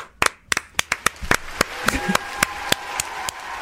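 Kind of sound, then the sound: crowd, louder audience applause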